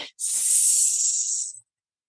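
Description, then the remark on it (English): A person makes a snake-like hiss while holding up an index finger as a temporal cue, a steady, airy "sss" held for about a second and a half after a brief breathy onset, then silence. “Another example is holding up one finger, your index finger, your or your pointer finger, and you're making a snake sound and you're doing the”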